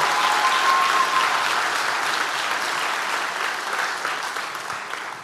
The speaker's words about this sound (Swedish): Ska vi ge Jesus en applåd?